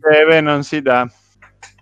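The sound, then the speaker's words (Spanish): A voice mimics a clock's ticking with a quick run of loud, rhythmic syllables, followed by a couple of faint, soft clicks in near silence. “Tic tac, tic tac. El reloj.”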